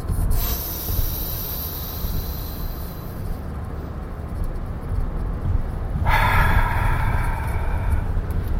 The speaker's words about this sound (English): Let's three deep uh, three deep breaths. deeper as we go. hold it at the top. Ready? Go.